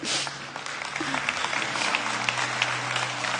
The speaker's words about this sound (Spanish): Sí, sí, denle un aplauso Jesús, por favor.